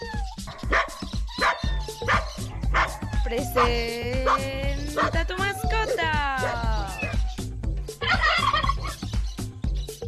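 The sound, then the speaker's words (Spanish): A playful four-year-old female boxer dog barks repeatedly, short sharp barks mixed with drawn-out whining yelps and growly vocalizing, continuing steadily for about ten seconds. “Es una perrita de raza boxer, tiene 4 años y es muy juguetona.”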